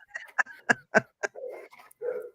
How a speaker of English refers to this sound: oh my gosh. Now the dogs are going off.